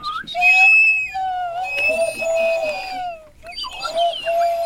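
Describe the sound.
Several people whistle bird-like calls at once on Radio Grenouille, imitating birds, overlapping warbles and sliding tones that carry on steadily, break off briefly, then resume, with faint murmuring voices underneath.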